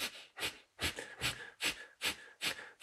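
A steady series of about seven short, forceful breaths pushed softly out through the nose while pumping the lower abdominal muscles and diaphragm, kapalbhati-style yoga breathing, evenly spaced roughly every 0.4 seconds, moderately soft, with no talking.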